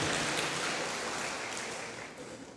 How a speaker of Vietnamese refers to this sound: rồi cảm ơn con thì cũng cho vỗ tay đi